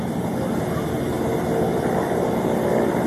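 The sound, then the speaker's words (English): A helicopter flying overhead, its steady, loud engine rumble and rotor drone filling the air continuously without fading over a few seconds. “Die chopper van It's them.”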